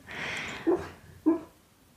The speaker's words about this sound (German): Und es ist ganz spannend, mein Hund gerade im Hintergrund, der träumt auch, also wundere dich nicht. Er läuft wahrscheinlich im Traum gerade über das Feld und sieht andere Hunde.